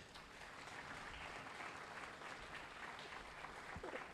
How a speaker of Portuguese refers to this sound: Aplaude ele, aplaude.